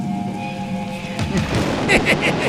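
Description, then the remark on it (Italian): A sustained musical drone gives way to a wash of rain-like noise and low rolling thunder that swells partway through, fairly loud, like the opening of a song. “Senti la pioggia, la pioggia di sangue, la senti?”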